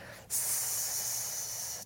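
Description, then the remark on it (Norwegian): A single long, steady hissing "sss" exhale through the mouth on an S sound, bright and airy, holding at an even level for about one and a half seconds before cutting off. “Men hvis du derimot puster ut eh, på en, eh, på en S, f.eks. bare lage en lang”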